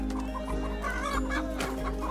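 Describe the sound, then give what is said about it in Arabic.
Several chickens at a bird market, being sold, cluck and squawk continuously and fairly loudly, with overlapping bursts over a steady low hum. “ثم خرجنا أنا وجحا إلى سوق الطيور فباع الدجاج وشعرت بالحزن لمفارقة دجاج منزلنا”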